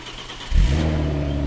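A car engine turns over and catches about a third of the way in, then settles into a loud, steady idle with a low rumbling hum, with no voices.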